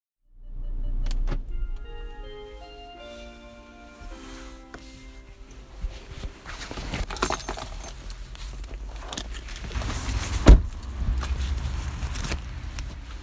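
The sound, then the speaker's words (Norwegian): A car door shuts with a single solid thud near the end, after rustling and clicking around the vehicle, a steady electronic chime, and a low engine-like rumble, without speech, on a dark Monday morning just after seven, with streetlights ahead. “med lukka bildør bak meg og lyset gjennom mørket fra lyktestolpene foran meg tar jeg fatt på mandag morgen.”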